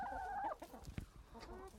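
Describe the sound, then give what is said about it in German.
Hens at a henhouse clucking, a drawn-out tonal cackle followed by short broken clucks and scratchy pecking sounds as they peck at dandelion held out to them, about 30 hens, with no one speaking. “Was tut es? Gackern.”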